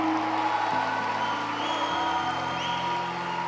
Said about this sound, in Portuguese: Se no mínimo aplaude e glorifique o nome dele. Uou! Dá um grito, faz algum barulho.